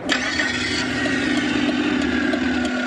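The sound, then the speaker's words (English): A car's steady, rumbling combustion engine idles, a continuous mechanical drone with a low hum and a buzzy upper rattle, holding the same level throughout with no one speaking. “To pretend to be a combustion engine vehicle, or could we have something a bit more high tech that gives actually a, a very positive feeling and a positive meaning as well”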